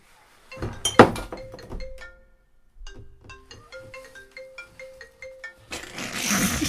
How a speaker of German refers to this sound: den Kasten anheben hier? Da ist Bier drunter.